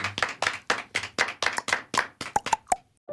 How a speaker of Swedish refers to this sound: Tack så mycket för den här morgonen. Tack själv! Du får en applåd av oss.